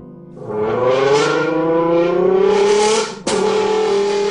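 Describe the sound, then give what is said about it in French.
A Lamborghini sports car engine imitated by blowing into a cut-open metal drink can: a loud, buzzy revving tone climbs steadily in pitch for about three seconds, breaks off briefly, then roars on again. No talking. “D'autres découpent le métal pour souffler à l'intérieur et imiter le son des moteurs de voitures de sport.”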